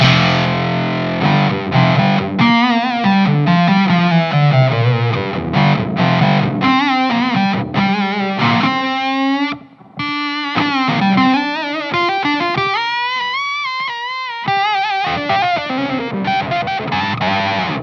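A distorted electric guitar plays a continuous run of notes and bends through an effects pedal on a bassier setting, loud, with a warm, bass-heavy overdriven tone and no talking.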